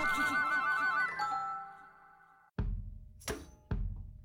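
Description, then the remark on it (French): A short radio jingle for the segment "Le rêve de Frankie": a bright, melodic musical sting that fades out, followed by three heavy, booming thumps spaced about half a second apart. No one speaks. “Bah écoute, euh, bah, j'envoie le jingle.”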